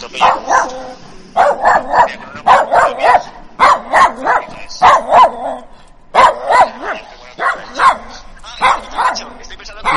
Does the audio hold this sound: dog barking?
yes